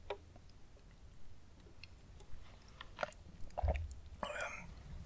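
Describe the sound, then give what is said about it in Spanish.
Someone takes a sip of water: quiet wet mouth clicks and a soft gulp or two, scattered irregularly over a low background hiss, with no talking. “Eh, cuando pausa para trago de agua,”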